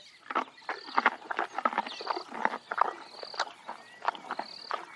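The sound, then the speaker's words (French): Zebras graze, their hooves thudding and shuffling on the ground in an irregular patter of moderately loud steps, with faint high chirping in the background. “Mais enfin, ils ne parlent pas. Ils broutent.”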